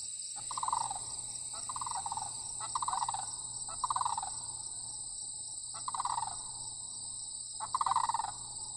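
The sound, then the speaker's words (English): A large bird in flight gives a series of drawn-out, mid-pitched calls, six or seven in a loose rhythm, over a steady high-pitched drone of crickets or insects. No one speaks. “The second one that I'll play is a more drawn out sound of them in flight, like the sound that they make when they're trying to circle a prey.”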